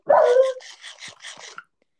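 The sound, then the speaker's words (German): Three dogs chasing someone bark loudly: one sharp, strained bark followed by a quick run of softer, higher yapping barks, with no voices present. “Lass dich doch von den Hunden töten, kleiner Bruder.”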